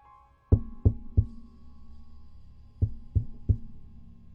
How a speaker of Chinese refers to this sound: 过了一会儿，门口传来了敲门的声音。